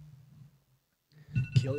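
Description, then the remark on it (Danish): After a brief hush, a phone alarm abruptly starts up, a steady electronic tone sounding fairly loud, with some muffled background noise mixed in. “Han, han der på lydløs, det var bare en alarm.”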